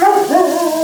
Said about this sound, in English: Shut up, dog.